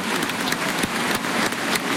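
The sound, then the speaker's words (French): Crowd applause at a bullring for the bullfighter from Nîmes, some spectators standing up to applaud: dense, steady clapping from many hands forming a continuous crackling wash, with a few sharper claps standing out. No voices are heard. “quelques-uns qui se sont levés pour applaudir euh, le Nîmois.”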